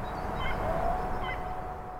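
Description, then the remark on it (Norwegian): A few faint bird chirps, brief and scattered over a steady low background hum in an otherwise nearly silent setting, inside the grey, barbed-wire-topped concrete walls of the former Sachsenhausen concentration camp outside Berlin, on a sunny but cool March day in 2020, with no one speaking. “Bortsett fra litt fuglekvitter er det nesten helt stille innafor de grå betongmurene med piggtråd på toppen i den gamle nazileiren.”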